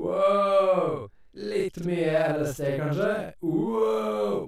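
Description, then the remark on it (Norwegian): A man's voice processed with an echo effect, loud, calling out a long drawn-out exclamation, speaking a short phrase, then exclaiming again, the words trailing into repeats; he calls "Hallo" and "Ekko". “Hallo? Hallo? Ekko? Ekko? Ekko? Ekko?”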